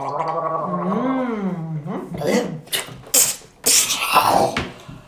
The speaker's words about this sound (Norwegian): Jeg, jeg spytter i, i, potta di.